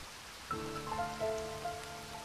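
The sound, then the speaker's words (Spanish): Steady night rain hisses throughout at a soft, even level, joined after a moment by a low, sustained, wavering tone like chanting beneath it. “Estas palabras se sentían aún más frías que la lluvia nocturna que caía sobre su cara.”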